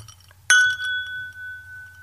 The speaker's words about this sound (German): Und deswegen will ich tatsächlich heute mit dir anstoßen. Und das mache ich jetzt mal ganz praktisch. Pass auf, hör zu.